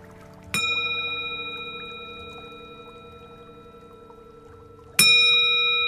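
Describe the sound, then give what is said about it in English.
A meditation bell is struck twice, about four seconds apart, marking the end of a five-minute meditation practice, each strike ringing out with a clear, sustained shimmering tone that slowly fades. “the bell, the sign, the end of the practice.”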